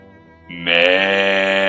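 A single drawn-out sheep bleat, nasal and buzzy, starting soft and swelling abruptly into a loud, steady, quavering cry that holds to the end, with no talking.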